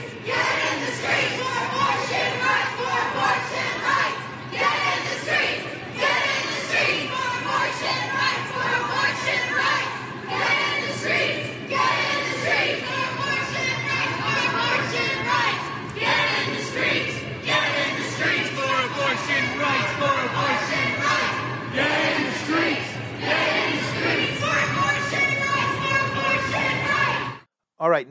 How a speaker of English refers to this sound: But first, some sounds from Los Angeles, where hundreds took to the downtown streets following a united protest.